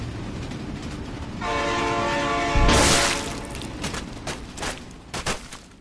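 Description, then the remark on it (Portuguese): A train horn blares in a steady, sustained blast over a low rumble, then a loud whoosh as the train rushes past, followed by fading rattling and clatter from the cars. “quando o comboio tocar nele, é transportado para uma sala secreta, onde apanha um comboio para Hogwarts.”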